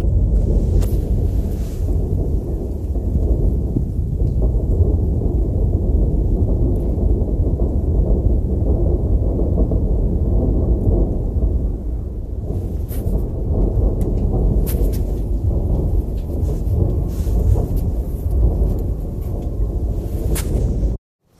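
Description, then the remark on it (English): Grad rocket artillery shelling the Saltovka district of Kharkiv, Ukraine: a continuous heavy, thunder-like rumble with repeated sharper booms breaking through every few seconds, rolling on without pause and with no voices. “Grads are shelling the Saltovka heavily.”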